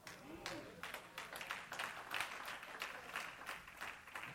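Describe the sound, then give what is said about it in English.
An audience at a church sermon claps steadily for about four seconds, a dense, even patter of many hands at moderate loudness, with a faint voice briefly audible near the start. “See, some of y'all didn't clap on that, but that's all right.”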